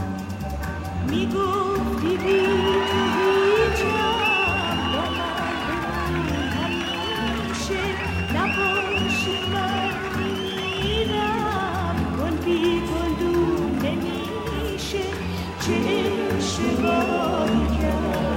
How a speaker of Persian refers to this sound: صدای سوت و تشویق بالا گرفت